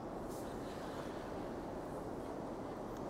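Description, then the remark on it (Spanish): A steady, dense roar of a stormy sea and wind battering a boat, crashing surf blending into a constant rushing noise that stays loud and unbroken throughout, with no voices. “Y pum, póngale más duro esa tormenta el que está ahí arriba y de pronto comienza.”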